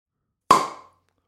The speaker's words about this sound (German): Ich mache mir erstmal ein schönes Bierchen auf.